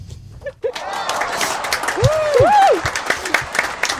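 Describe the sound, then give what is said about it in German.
After a brief quiet moment, an audience breaks into dense, steady applause for the winner of a contest, with a rising and falling cheer or whoop cutting through the clapping midway. “Großer Applaus.”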